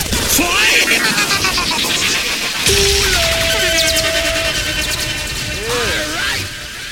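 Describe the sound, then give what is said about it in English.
A loud, chaotic reggae air horn effect: blaring horn tones, one held note and several sliding whoops, layered over a dense crashing, hissing wash of noise that runs the whole seven seconds. “I, I like my new, my new, my new you know, reggae air horns.”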